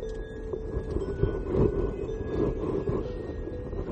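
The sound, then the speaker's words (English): A steady, fairly loud rumble of street traffic rolls past, with low engine drone and a faint tonal whine sustained throughout and no voices. “There's a lot of traffic right now.”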